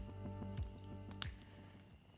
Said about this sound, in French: Je vous invite à vous asseoir près de moi autour du feu qui crépite et de vous laisser emporter par l'histoire que vous allez entendre.